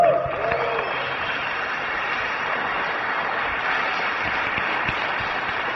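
Sustained applause from an audience for a speaker being introduced, a dense steady wash of clapping that holds at an even, fairly loud level for several seconds with no voices rising above it.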